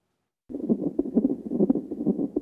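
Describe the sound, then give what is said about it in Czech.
Fetal heartbeat on a Doppler monitor during a check-up of a baby due in about a week: a rapid, steady galloping whoosh of muffled thumps over a low rumbling hiss, starting after a brief silence and staying fairly loud. “poslouchá ozvy dítěte.”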